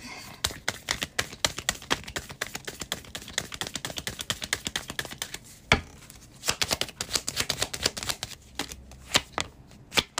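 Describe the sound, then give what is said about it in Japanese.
Tarot cards being shuffled for a daily one-card draw, a steady stream of crisp papery flicks and snaps with a brief pause midway before the riffling picks up again; no one speaks. “おっしゃ今日も一枚引きいきます。ちょっと待ってね”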